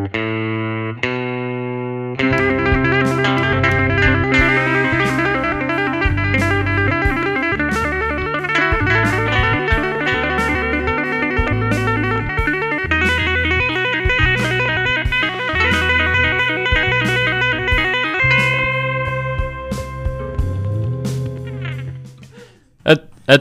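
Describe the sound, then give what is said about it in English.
A clean, bright Telecaster electric guitar on the bridge pickup plays the intro guitar part as a steady riff over a bass line and drum hits for about twenty seconds, then trails off into a couple of sharp clicks. “Wow, did you did you play the the intro guitar part, but just on a clean t- tone?”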